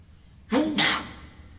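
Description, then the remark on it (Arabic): A single sharp sneeze, a quick voiced intake followed by a bright, noisy burst, loud against an otherwise quiet background. “يرحمك الله”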